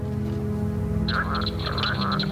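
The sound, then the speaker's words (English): A leopard frog (Rana pipiens), a smallish frog with paired balloon-like vocal sacs on each side of the throat, gives its mating call: a run of rapid, snoring croaks with a rattling, buzzy texture, steady over a low background hum. “A somewhat smaller frog with paired vocal sacs that appear as balloon-like protuberances on each side of the throat is a leopard frog, Rana pipiens, This is its mating call.”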